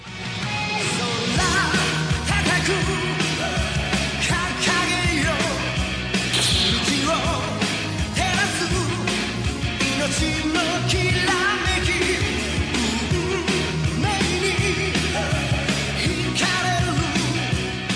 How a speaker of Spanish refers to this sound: No, es que, es que me laten esas canciones rock. Ah, me encanta ese rock de los Caballeros del Zodiaco. Bueno, escuchen esto, es una joya.